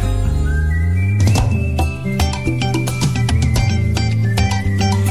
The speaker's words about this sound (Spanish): la canción, pero te la voy a silbar